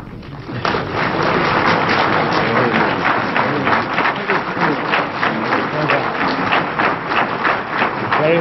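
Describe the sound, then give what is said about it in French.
Sustained applause from a large group in the UN Security Council chamber following a speech, a dense, steady patter of many hands clapping that starts abruptly and holds at an even, fairly loud level for about eight seconds, with no voices. “Je voudrais attirer votre attention sur les applaudissements qui ont suivi cette intervention.”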